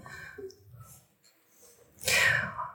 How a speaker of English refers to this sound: You try again, you get them almost lined up. And you sneeze. Oh, there it goes again.